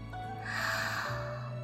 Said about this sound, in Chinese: 接着，他打了个哈欠。